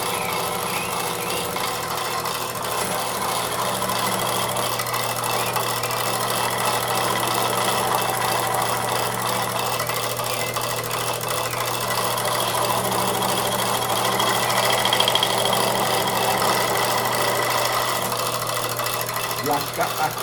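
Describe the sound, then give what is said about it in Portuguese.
An electric jigsaw used for woodworking runs steadily for about twenty seconds. It gives a dense, buzzing, rattling whir with a constant low motor hum and a fast vibrating blade chatter at an even loudness. “essa a serra tico-tico, assim, é meio que para trabalhar com madeira, para é, é, é, uma, é a máquina assim essencial para você começar pelo menos, sabe?”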